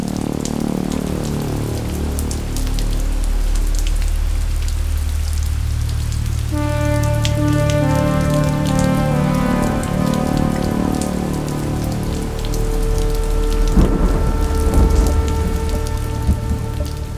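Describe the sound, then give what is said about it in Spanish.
Steady rain patters against a window pane in a dense, continuous wash, with soft sustained musical tones joining partway through and continuing under the downpour. “observaba la lluvia que corría por el sucio cristal.”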